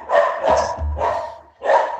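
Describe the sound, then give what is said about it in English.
Several sharp dog barks ring out in quick bursts, about three or four loud yaps, with brief pauses between them and no talking over them. “as, as the dogs have decided to weigh in on this.”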